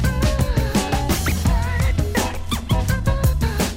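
A 1991 French hip-hop track plays loud on the radio station Hit West, with a punchy, steady drum beat, a deep rolling bassline and bright melodic layers riding on top, continuous throughout.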